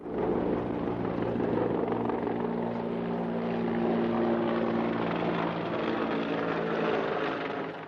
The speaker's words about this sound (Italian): Gli elicotteri della Nato sorvolano continuamente le città, soprattutto la sera.